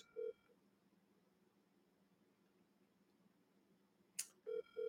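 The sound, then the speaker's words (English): A few short electronic telephone beeps of an outgoing call to a cousin, one near the start and two close together at the end, with a sharp click just before them and a low steady hum between. “See if she answered the phone first.”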